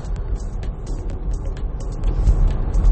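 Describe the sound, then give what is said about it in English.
Steady low rumble of road traffic going by, a continuous heavy drone that swells slightly toward the end, with no voices. “hold on there's traffic coming up”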